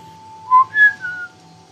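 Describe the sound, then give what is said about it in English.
A person standing by their car whistles a short three-note phrase, low, then high, then low again, clear, over a steady faint background hum with no talking. “So I blew a low, high, low pitched whistle and sat quietly.”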